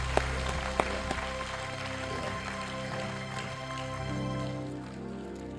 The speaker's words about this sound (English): Why don't you give God a hand clap praise this time? Yeah. Yeah.